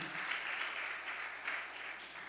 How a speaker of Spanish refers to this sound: ¿Cuánto le dan un aplauso fuerte al Señor?